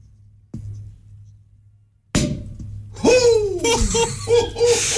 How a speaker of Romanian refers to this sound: deschidem totuși o sticlă rece, liniște